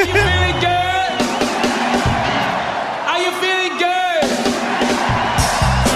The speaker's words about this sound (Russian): Ну и мы с вами, конечно, присоединяемся к аплодисментам, э, потому что это, это нечто.